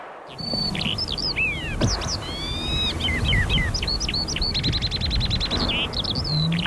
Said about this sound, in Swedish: det där hör ni ju direkt att det är en sånglärka.